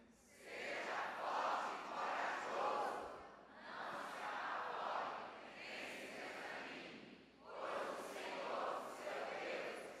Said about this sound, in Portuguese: Agora eu quero que essa igreja, num coral bem lindo e bem forte, para sair na gravação, capta o som da igreja e abre o microfone que for necessário. Vamos lá, todo mundo junto? Um, dois, três.